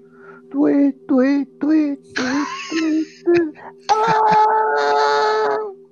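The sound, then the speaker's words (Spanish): A voice mimics the screeching violin stabs of a classic horror shower-scene scream: about five sharp, rhythmic shrieks, then a long sustained wail, loud. “Y con ese grito se este, vemos cómo asesinan a Mario Vemos una sombra que de la nada aparece, jala la, la cortina de la ducha, cuchillo y mano izquierda, de arriba abajo, apuñalando.”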